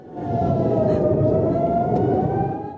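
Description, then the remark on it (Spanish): A loud air raid warning siren for incoming missiles wails steadily, holding a sustained tone with a slight pitch drift over a dense rumbling background, with no talking. “Esta familia llegó a acostumbrarse al sonar de la sirena y a los misiles, pero nunca pensaron que llegarían a haberlo ocurrido el último 7 de octubre.”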